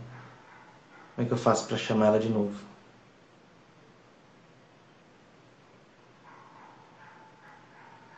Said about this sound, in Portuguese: Mas tem um cachorro latindo aqui que eu não sei se ele chama atenção.